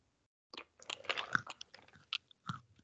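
Crunchy, wet chewing of peanuts right up against the microphone, a rapid irregular series of crackling bites and mouth sounds lasting a couple of seconds, loud and intimate with no talking.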